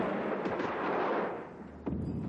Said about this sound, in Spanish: cuando la fortaleza vuela en una explosión.